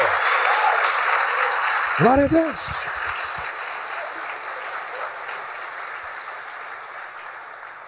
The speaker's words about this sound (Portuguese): Se você crê nisso, aplauda o Senhor como quem crê mesmo.